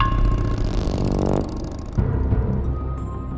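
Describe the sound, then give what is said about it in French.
A blue Triumph motorcycle engine revs up loudly, its throaty pitch climbing before cutting back, then surging again briefly and settling into a steady idle rumble. “Pour ses 18 ans, il lui offre une moto, une Triomphe bleue.”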